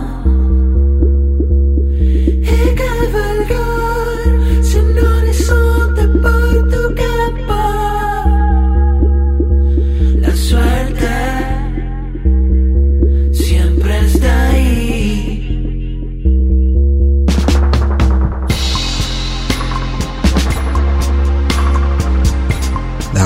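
A recorded song plays loud and continuously, with a steady stepping bass line beneath layered melodic parts that turn brighter and busier toward the end.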